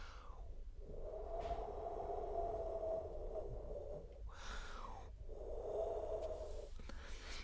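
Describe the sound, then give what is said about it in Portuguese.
While telling a Christmas tale, a voice imitates howling wind with two long, steady moaning 'ooo' tones, each opened by a breathy whoosh. It is fairly loud, with no other sounds. “O vento rugia e mugia”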